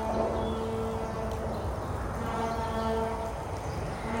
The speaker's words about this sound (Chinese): 啊，我们的小喇叭开始了，我刚以为是什么公车的声音。